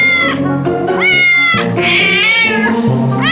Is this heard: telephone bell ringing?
no